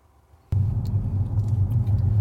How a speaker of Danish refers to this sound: Man kan selvfølgelig godt høre, at det larmer lidt for dækkene, fordi at det er relativt grov asfalt.